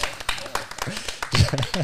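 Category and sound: crowd, round of applause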